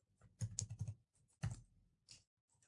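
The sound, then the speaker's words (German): Quick bursts of keyboard typing, clusters of soft clicking keystrokes separated by brief pauses, fairly quiet, with no voices, as the word "Laute" is typed in. “okay, das ist ein Lauteninstrument, vielleicht einfach mal Laute eingeben.”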